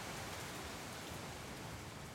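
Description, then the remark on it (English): Steady rain falls at night in a continuous, even hiss with no distinct individual drops standing out, fairly soft and unchanging throughout, with no voices present. “I open my mouth and catch what I can of the raindrops.”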